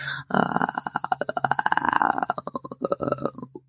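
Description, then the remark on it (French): A voice makes a deep, rattling throat purr as a vocal massage exercise, a fast train of pulses like a puttering moped engine that runs about three seconds, slowing slightly toward the end. “Par exemple, ça, moi, je les pratique, les massages vocaux, euh, ronronnement profond,”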